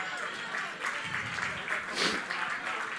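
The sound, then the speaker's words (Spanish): A crowd applauds steadily for about three seconds, a dense wash of many hands clapping at once, with some voices mixed in beneath the clapping. “Un aplauso, un aplauso.”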